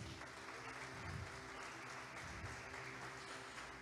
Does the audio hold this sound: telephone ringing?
no